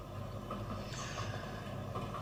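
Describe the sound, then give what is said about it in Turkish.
A train runs through the night, rumbling steadily, a dense continuous roar of wheels and carriage noise with faint clattering, filling the whole moment without pause and with no voices. “Gürültüyle gecede uzayıp giden trenin soluk ışığında bu kadar yazabiliyorum annem.”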